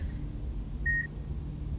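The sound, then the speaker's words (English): A single soft electronic beep, like a patient monitor, sounds once over a steady low hum of room noise, with no one speaking. “I mean, I know you haven't been of a speaking mind the past few years, but hearing the soft beep, beep, beep of your monitor, knowing you were there.”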